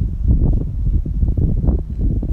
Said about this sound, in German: Und der Wind fegt so um mich rum.